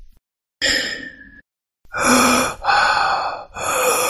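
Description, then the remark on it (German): During a dice role-playing game, a voice imitates heavy, rasping Darth Vader-style breathing, loud: one long exhale, then a series of slow, drawn-out breaths in a steady rhythm, for a character pressed against a wall; no talking. “du würdest zumindest gerne lauschen, wenn da nicht dieses schwere Atmen von Galli nur neben dir wäre, der sich an die Wand presst.”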